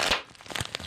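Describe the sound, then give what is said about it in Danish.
Large-bubble bubble wrap being popped while eating chocolate, with about four sharp, snapping pops spread unevenly over a second amid faint crinkling of the plastic, and no voices. “Og vi prøver os øh, med noget, en blanding af bobleplast og chokolade, for at se, om mm. det gør os lykkeligere.”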